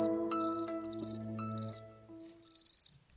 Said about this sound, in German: Ich saß am Wochenende abends draußen auf dem Balkon einer Freundin und hörte Grillen zirpen. Das ist mir diesen Sommer schon öfter aufgefallen, dass die Grillen einfach wahnsinnig laut sind. Mitten in der Stadt, mitten in Berlin-Neukölln.